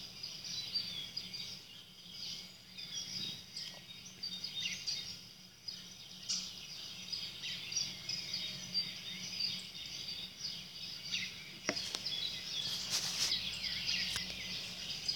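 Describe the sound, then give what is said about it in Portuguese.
Birds chirp and twitter softly, a steady layer of small high calls over a faint outdoor hush, with no one speaking. “Eu posso olhar para elas da mesma forma que ouço os sons, os pássaros.”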